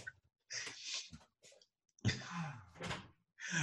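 Rustling and clattering as a door is handled and pulled open to let out a cat that was yowling at it, with a brief creaking squeal partway through and a few scattered thumps, then quiet.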